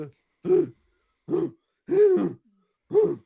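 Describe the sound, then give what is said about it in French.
A voice imitates a guttural language made essentially of grunts, in four separate bursts at a steady, unhurried pace. The throaty, growly sounds are fairly loud, with short silences between them and no words. “Et c'est essentiellement fait à base de grognements.”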